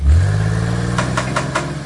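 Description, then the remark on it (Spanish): A car engine catches and settles into a loud, deep rumble, then four quick rhythmic bursts ring out as it is revved, with no voices. “Prender un carro es algo más que prender un carro.”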